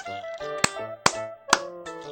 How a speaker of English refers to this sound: I am a seal and I clap my hands.